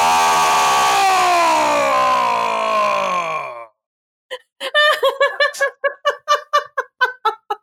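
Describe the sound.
A person imitates a banshee's scream: a loud, sustained wail lasting several seconds that gradually slides lower in pitch, then cuts off and gives way to rhythmic bursts of laughter.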